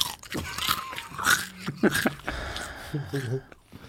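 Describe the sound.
Crunchy chewing close to the microphone, a run of brittle bites and munching sounds, with people's voices talking over it.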